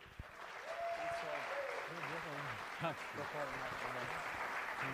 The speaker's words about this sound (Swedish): Broder. En applåd till.